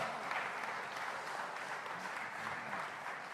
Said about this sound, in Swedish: Let's clap our hands and appreciate His presence. You can do better than that.